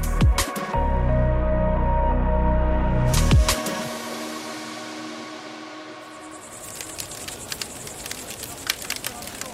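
A loud, low rumbling drone fills the first few seconds, then fades into a crackling bonfire lit at night in the bivouac of the Dakar rally: irregular pops and snaps over a soft, steady hiss.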